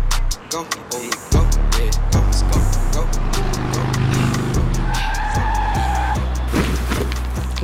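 A speeding motorcycle skids to a stop with screeching tires and engine roar, followed by a steady idling hum with a voice in the background.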